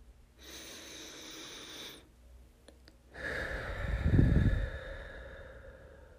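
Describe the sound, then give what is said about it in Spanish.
A deep breath drawn in through the nose during a guided meditation, a brief pause, then a long, fuller exhale that swells in the middle and tapers off, with no talking. “Tomamos una última respiración.”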